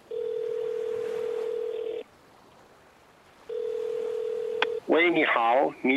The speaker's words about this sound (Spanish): Sí, sí, viene el teléfono. Vale, pues llama, llama, llama. Espera, que pongo el altavoz y escuchamos los dos.